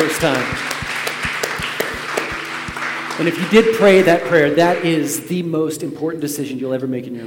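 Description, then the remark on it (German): A church audience applauds after a prayer, with steady rhythmic claps over a broad wash of crowd noise for a few seconds, then a loud voice rises over the fading applause. “Let's just give those applause.”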